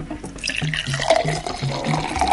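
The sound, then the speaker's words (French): Liquid pours steadily into a glass for a couple of seconds, a gurgling, splashing stream with a faintly rising tone as the glass fills. Scotch is being served, and no one speaks. “Voici votre scotch Massa. Je vous sers Massa.”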